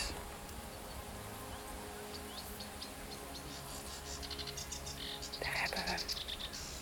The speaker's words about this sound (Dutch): En als je over de kade loopt, zie je al heel veel vogels, maar je hoort ze ook heel veel. We horen nu ook ganzen en heel veel rietzangers.